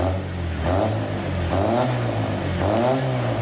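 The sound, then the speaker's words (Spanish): The engine of an old, rusty 504 car is started and runs roughly, revving up several times, its low rumble rising and falling in pitch with a rattling, clattery edge throughout. “Por eso nosotros encendemos el motor de este 504, un poco viejo y oxidado, pero que es un fierrazo y te lleva a todos lados.”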